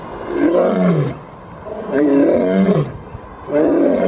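A lion roars three times in a row, loud, each deep, rasping bellow lasting about a second and separated by short pauses, with no talking.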